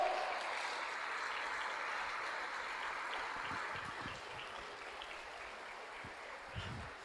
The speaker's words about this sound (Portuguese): Se você entende nisso, dê um aplauso a ele, vai, por favor.